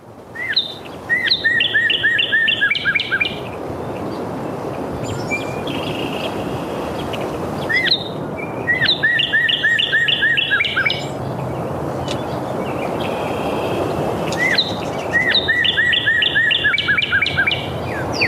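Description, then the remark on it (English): A songbird sings three bright whistled phrases, each a quick run of clear repeated notes, spaced several seconds apart, with sharp metallic chips between them over a steady outdoor hiss. “Their call note can be heard any time of year and is a repeated metallic chip given to keep in contact with one another or when they are feeling threatened.”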